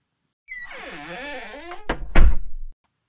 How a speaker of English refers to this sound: am old enough to hear dream doors close one after the other, as if all the guests in a villa retired to their rooms at the same time. Shut, click, shut, click, shut, click.